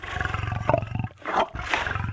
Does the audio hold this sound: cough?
no